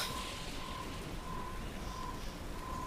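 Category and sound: nature, wind and rain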